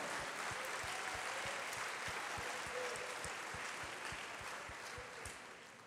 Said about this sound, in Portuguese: Você quer aplaudir? Aplauda.